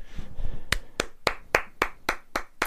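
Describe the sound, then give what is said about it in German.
Steady hand clapping, about eight sharp claps in an even, fairly quick rhythm, following a brief low murmur at the start. It sounds like one or a few people clapping rather than a crowd. “Ja, Applaus.”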